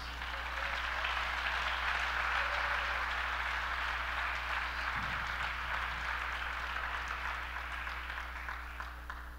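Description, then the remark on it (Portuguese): An audience applauds the word of God during a sermon, a steady, dense, even wash of clapping for several seconds that holds its level throughout and tapers slightly at the end, with no voices over it. “Você pode aplaudir a palavra de Deus?”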